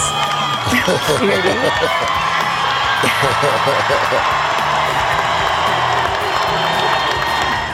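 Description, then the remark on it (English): A large crowd at a Seton Hall University graduation ceremony cheers and claps loudly and steadily for several seconds for a graduate and her service dog, a yellow lab golden retriever mix, with whoops and scattered laughter rising out of the dense, continuous roar of applause. “Grace and Justin getting a huge round of applause from the crowd.”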